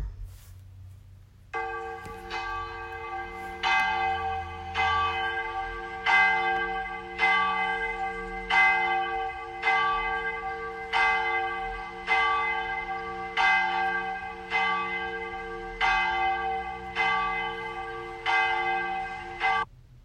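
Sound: church bell ringing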